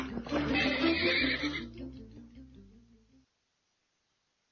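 A horse whinnies loudly, a shrill, bright cry that wavers and slides downward into a lower, fluttering neigh before stopping abruptly after about three seconds, followed by silence.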